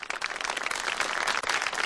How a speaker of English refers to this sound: Number thirteen. We get them uh get them hand claps and then uh we got we got a little something dedicated to China as well, don't we?